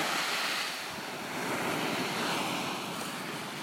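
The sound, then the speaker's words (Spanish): Steady roar of sea surf washing onto a shore, a dense hiss that swells gently and eases again, with some wind rumble mixed in and no voices. “O, por ejemplo, yo ahorita estoy sentada enfrente del mar y yo llego y y la saludo.”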